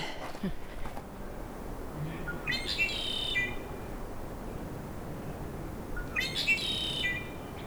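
A red-winged blackbird calls twice at a swampy lake, each a bright, buzzy trilling phrase about a second long, spaced a few seconds apart over steady outdoor background hiss.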